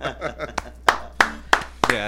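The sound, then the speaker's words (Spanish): Brief applause of about five sharp, separate hand claps at a slow, steady pace, with people talking underneath and around them. “bueno, ahí un, aplauso para ambos, ¿verdad?”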